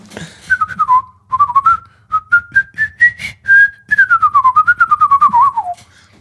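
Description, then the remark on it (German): A person whistles a melody meant to mimic an oboe line, clear, with a sequence of short rising notes followed by a longer, wavering descending phrase. “Und du kannst es schlecht pfeifen. Die Oboe ist kein gutes Pfeifinstrument.”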